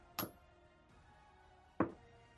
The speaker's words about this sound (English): I heard a lot of dice being rolled. It's a good bit.